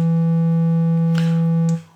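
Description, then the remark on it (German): A steady, loud electronic synth tone from a modular synthesizer oscillator, played through an amplifier, holds at one low pitch with buzzy harmonics, a faint noisy click interrupting midway, before it fades out near the end. “So, das heißt, jetzt hören wir wieder unseren Ton.”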